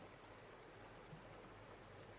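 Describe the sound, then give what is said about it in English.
A steady, soft wash of running water, like a gentle stream, flows continuously without pause. It sounds even and hushed, with no voices or other sounds. “The sound of running water draws you out of your reverie, and you glance behind you, listening with rapt attention”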